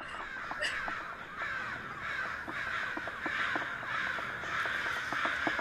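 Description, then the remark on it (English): A dense flock of attacking crows caws continuously and harshly, many overlapping calls forming a loud, agitated clamor with sharp repeated bursts and no voices. “I listened to the sound of the splintering wood and I wondered how many million years of memory was stored in those little brains, behind the stabbing beaks, the piercing eyes, now giving them this instinct to destroy mankind”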